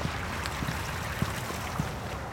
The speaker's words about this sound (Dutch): Langs het beekje.